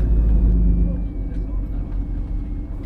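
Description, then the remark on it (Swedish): A truck's deep engine rumble drones steadily as the vehicle rolls out onto the road again, heading for Uppsala along small winding country roads; a heavy low hum with faint road noise on top. “Efter två timmar rullar vi ut på vägen igen, nu med siktet ställt på Uppsala via små slingriga landsvägar där bilen bitvis tar upp hela körbanan.”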